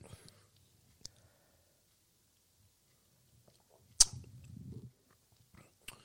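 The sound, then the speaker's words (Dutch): Near-silence broken by quiet drinking sounds as two people sip beer: a few sharp clicks like a glass being set down, plus a soft gulping, swallowing burst in the middle. No one talks. “voor de mensen die denken, wat voor stilte valt en nu? We nemen allebei even een slokje.”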